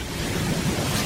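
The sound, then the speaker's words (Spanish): Water pumps at Doñana run with a steady, unbroken rumble, a dense low drone layered with a wash of rushing noise, holding at an even loudness throughout with no voices. The motor-driven pumps run day and night, extracting water from the aquifers. “las bombas de agua secando la marisma.”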